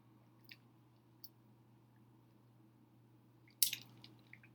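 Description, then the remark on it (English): Someone drinks water: a few soft wet clicks, then a louder gulping swallow followed by small mouth sounds, all over a steady low background hum. “I'm saying, y'all, I'm just drinking this water right now.”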